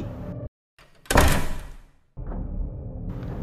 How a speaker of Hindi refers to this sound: तन्मय को जैसे ही दरवाजे की आवाज़ सुनाई दी